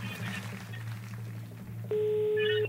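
Over a steady low hum, faint phone beeps give way to a single loud, steady ringing tone from a telephone line near the end, clear and close.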